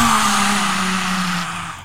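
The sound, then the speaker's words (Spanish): A voice imitates a lion's roar in the lion's breath breathing exercise, mouth open and tongue out: one long, forceful, breathy exhale that holds a low, steady pitch for nearly two seconds before sagging slightly and fading out. “Este rugido, esta, mira, de solo hacerlo.”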